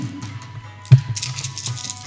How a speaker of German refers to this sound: Okay, ähm, würfelt mal ihr oben auf Action und Stunt, um denen zu entgehen.